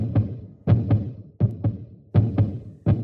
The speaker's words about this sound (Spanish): Levanten esos tablones. Ahí está. Ahí está latiendo su horrible corazón.